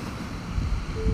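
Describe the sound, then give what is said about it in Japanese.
Ocean waves wash onto a beach in a steady low rumble on a cold morning of about 4 degrees, with gusty wind noise buffeting the microphone throughout this brief outdoor moment. “今日はえっ、ー、と海岸まで来ています波の音が聞こえますでしょうか”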